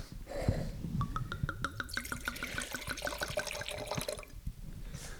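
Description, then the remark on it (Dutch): Wine from Puglia, Italy, glugs from a bottle into a glass, a rapid rhythmic gurgle with a rising pitch as the glass fills, then a short pause and a brief second trickle. “Jij wil vast wel een druppie? Ik wil eh, wel een druppie, ja.”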